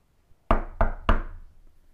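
Three firm knocks on a door in an even rhythm, fairly loud, each with a short woody ring that fades into quiet afterward.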